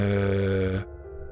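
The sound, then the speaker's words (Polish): A short electronic phone text message (SMS) notification alert with bright, steady tones rings out clearly for under a second, then cuts off, leaving a low hum behind. “numer, z którego dostajesz tego SMS-a, to numer Jenny”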